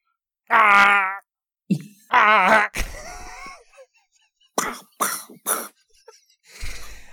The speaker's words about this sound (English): Oh yes, let's all take acknowledgement the amazing sound effects that was the original Doom